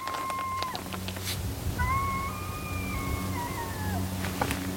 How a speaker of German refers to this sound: Ein Kojote heult.